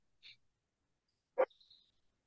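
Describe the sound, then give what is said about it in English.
Dogs barking in the living room on the other side of the house behind a closed door: a faint, high yip, then a single sharp muffled bark followed by a thin whine, all quiet with no talking. “Can you hear my dogs barking in the back?”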